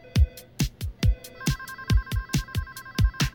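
A telephone at a 911 emergency call center in Koreatown rings with a loud electronic ringtone: a rapid, steady pulse of beats under bright beeping tones, repeating without pause. No one speaks.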